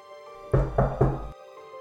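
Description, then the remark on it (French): Three firm knocks on a wooden door, evenly spaced in quick succession, fairly loud, followed by quiet; Little Red Riding Hood knocking at the door of Grandmother's house in the fairy tale. “Puis il alla se coucher dans le lit de Mère Grand, en attendant le petit chaperon rouge qui quelque temps après vient frapper à la porte.”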